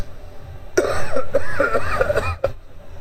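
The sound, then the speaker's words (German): A person clears their throat: a sharp onset, a drawn-out raspy, voiced rumble for over a second, then a short final huff. No talking. “Ich, ich mach mal hier gerade eine Räusper-Taste.”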